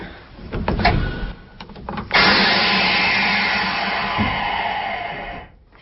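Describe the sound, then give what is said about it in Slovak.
A tram's pressure brake is applied and released during a brake system test: a couple of seconds of mechanical clicks and knocks, then a sudden loud, steady air hiss that holds for about three seconds before cutting off. “Takže to tvorí také gro prehliadky, práve tá prehliadka toho brzdového systému, všetky skúšky brzdy, ktorú teraz môžeme urobiť to zvuky, ktoré budete počuť, tak to je zabrzďovanie a odbrzdovanie tej tlakovej brzdy.”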